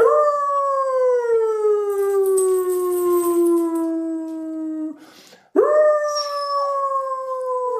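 A person imitates a long, wavering howl and the dog Bina joins in, the sustained howling sliding slowly downward, breaking briefly, then rising again loudly. No talking.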